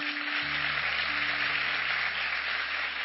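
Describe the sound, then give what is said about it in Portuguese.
A crowd applauds loudly, a dense, steady wash of many hands clapping that fills the whole few seconds, with a low sustained instrumental tone humming underneath. “Vamos aplaudir ele bem forte.”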